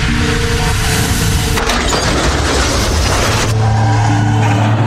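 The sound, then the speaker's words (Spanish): A car collision on a road with a 50 km/h speed limit: a vehicle engine hums as it travels at 60 km/h, then a loud crunching, splintering crash into a car lasts about two seconds before the rumble settles into a steady low drone. No one speaks. “En este punto se fracturó el cuello, luego de chocar con el carro.”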